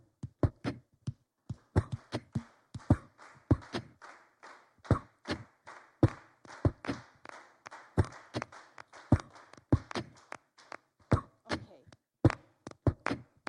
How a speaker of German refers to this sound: So, jetzt brauche ich nochmal eure Hilfe. Ein bisschen Clap, schaffen wir das?